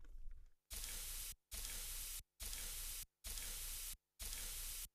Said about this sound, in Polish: Słyszymy szum? No właśnie. Ja specjalnie posłużyłem się, zdradzę wam, po prostu płynie woda, płynie po polskiej krainie. To po prostu leci woda ale równie dobrze to może być inny dźwięk